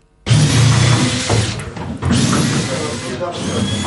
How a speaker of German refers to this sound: Aufbruchsstimmung am Romanshorner Hafen. In der MS Thurgau wird geschraubt, bohrt und kämmert. Damit auf dem Kursschiff bald wieder Passagiere begrüßt werden können, gibt es aber noch so einiges zu tun,